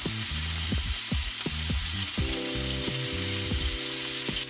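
Flour-coated squid pieces, just put into a pan of hot oil, sizzle and crackle steadily, a dense hiss running throughout with some low bumps and knocks from the pan. No one speaks.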